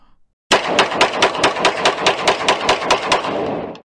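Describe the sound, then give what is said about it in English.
A rapid burst of gunshots fires in a steady, fast rhythm for about three seconds. The sharp, loud cracks blur into an automatic-fire rattle, with no voices. “I'm gonna have to take up my peace. Okay? And my peace, my peace, my peace goes bang bang.”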